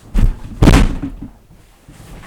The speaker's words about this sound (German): Einmal mit Knie unten gegen den Tisch und das Tastaturbrett rausgeschlagen.